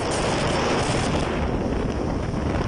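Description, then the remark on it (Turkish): Loud, steady roar of storm wind buffeting the microphone, with rushing waves and churning water around a sea bus caught in a storm among giant waves just after leaving port, travelling from Avşa Island via Marmara Island toward Avcılar, Istanbul, Turkey; continuous throughout, no voices. “Limandan ayrılır ayrılmaz da fırtınaya yakalandı. Deniz otobüsü dev dalgalarda boğuşmaya başladı.”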